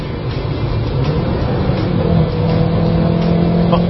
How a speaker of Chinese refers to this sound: 看着发动机的活跃。但同时也有很大的噪音哦，六千多红线区了，表现依旧稳健。